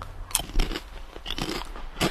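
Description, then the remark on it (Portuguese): Crisp crunching from biting into a potato chip: a sharp first bite followed by several crackly chews at an uneven pace, with no one talking. “feliz com essa notícia que eu vou dar uma mordida na minha batata.”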